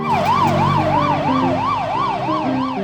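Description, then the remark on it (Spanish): A fire engine siren wails loudly in quick, steady up-and-down sweeps, about two per second, over a low engine rumble. Nobody speaks. “Al rato llegó una autobomba que desplegó una escalera larguísima sobre el árbol.”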